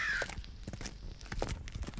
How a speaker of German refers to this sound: Da sind sie wieder, die Krähen